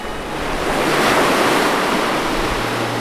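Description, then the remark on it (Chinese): Heavy waves several feet high, driven by Storm Dennis, roar and crash against a ship in a continuous loud rush, swelling to a peak midway and easing slightly, with wind noise underneath and no voices. “更可怕的是，风暴丹尼斯有几次把海浪像掀地毯那样翻起了海浪，不断往前推进的大浪，卷了高高数尺的海浪，拍打在船只上面。”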